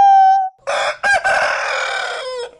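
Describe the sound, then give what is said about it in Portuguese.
A rooster lets out one loud cock-a-doodle-doo, starting with a short clear note before breaking into a long, raspy crow that trails off at the end. “Reforço, para mim você é inútil. Cocoricó!”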